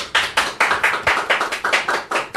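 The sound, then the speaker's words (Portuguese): Applause for two arriving guest musicians: a run of sharp, loud claps in a quick, even rhythm, about ten in all, with no voices over them. “Uma salva de palmas, galera.”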